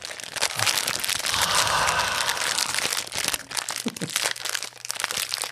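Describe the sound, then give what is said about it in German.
A fortune cookie wrapper, on fortune cookies with sayings in German and English, is crumpled and torn open: a steady, dense plastic crackling that fills the whole stretch with brief sharper crunches, no talking over it. “Warte, wir machen ihn jetzt auf. Wir machen jetzt ASMR.”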